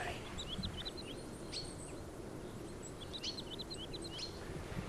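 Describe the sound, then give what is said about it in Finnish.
An approaching tawny pipit calls: short, high chirps repeated in loose clusters against a steady rush of outdoor background noise, close but not loud. “Kangaskiuru tulee. Joo. Nyt tulee ihan läheltä.”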